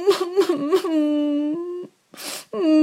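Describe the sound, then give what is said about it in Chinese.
A voice imitates a baby dragon crying: three quick sobbing gasps break into a long, steady wail, then a breathy sniff and another sustained wailing cry, moderately loud with no other sounds. “火龙宝宝哭了起来，一股股烟从他的鼻子里喷了出来。”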